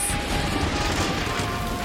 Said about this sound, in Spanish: Esta lluvia era parte de una gran tormenta tuvimos relámpagos y truenos.